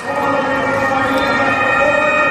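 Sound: police motorcycle siren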